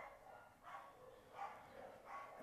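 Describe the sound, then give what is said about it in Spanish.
Dogs bark in the background, three muffled barks spaced roughly evenly apart, fairly faint against a low steady hum with no one talking. “y pues este va a ser un programa más, como todos, improvisado, como estos perros que improvisan.”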